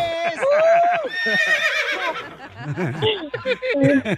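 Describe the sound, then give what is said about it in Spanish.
A horse neighs loudly, a long quavering whinny that wavers in pitch, followed by several shorter, shaky neighing bursts toward the end. “¡Lo vamos a dar un caballo.”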